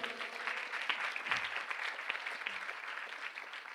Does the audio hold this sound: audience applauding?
yes